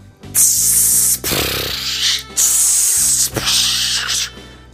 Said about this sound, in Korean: 이것은 입에서 나는 소리가 아닙니다. 태주가 커피 내리는 소리입니다.